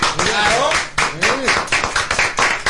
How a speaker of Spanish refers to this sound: Yo quiero que cada uno nos aplaudamos. Vamos a darnos a nosotros.